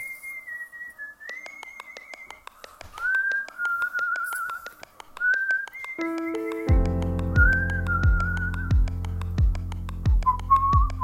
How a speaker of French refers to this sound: cette musique-là qui est un enregistrement d'un siffleur, un siffleur euh, humain